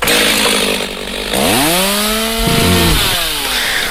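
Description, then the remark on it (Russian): A chainsaw engine runs loudly throughout, its buzzing pitch climbing sharply as it revs up, then wavering and dipping briefly before surging again; no one speaks. “Бензопила, что ли?”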